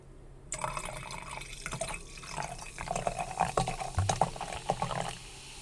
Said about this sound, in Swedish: Först och främst ska jag hälla upp lite vin.